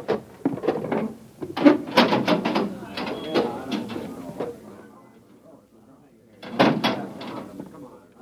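A heavy manhole access door leading down to a northbound road is hauled open in the dark with loud metallic clanks and a grinding scrape, then goes quiet before another short burst of rattling near the end.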